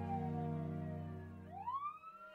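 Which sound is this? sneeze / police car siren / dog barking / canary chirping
police car siren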